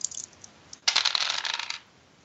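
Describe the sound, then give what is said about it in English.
A ten-sided die and a six-sided die are tossed together and clatter across a hard surface in a bright rattle that lasts about a second before settling, with no one speaking. “Got a uh, got an eight on uh, the D10 and a five on the D6, so that nice.”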